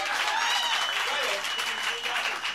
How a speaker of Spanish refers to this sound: Muy bien, un aplauso, un aplauso, un aplauso.